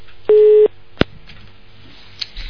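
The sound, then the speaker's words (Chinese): A single steady telephone busy-tone beep after a caller's call to a phone-in show drops, a loud mid-pitched hum lasting about a third of a second, then a sharp click and quiet line hiss. “哎呀，太可惜了，这个电话跳线了。”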